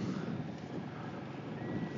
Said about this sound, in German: Und er rangiert jetzt hier mit seinem Boot, mit so einem kleinen maledivischen Fischerboot im Hafen umher.